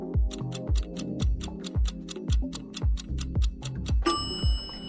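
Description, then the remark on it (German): A quiz countdown timer ticks steadily and quickly over a pulsing, low musical bed, then a bright, sustained tone rings out in the final second. No one speaks. “Der Timer ist rum.”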